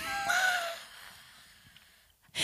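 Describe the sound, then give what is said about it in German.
A single raspy burp from a person opens the moment and trails off within about a second, followed by near quiet before another abrupt noise starts at the very end. “Hat man das gehört, dass ja. ich gerölt habe?”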